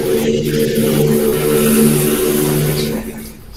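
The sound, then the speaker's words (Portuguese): A motorbike engine drones loudly with a steady, buzzing hum as it passes between the microphone and the screen, then fades away over the last second as it passes. “Passou uma moto entre o microfone demorou e a tela.”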